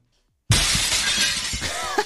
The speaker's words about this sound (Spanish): Se me ha caído la mesa de mezcla, lo siento.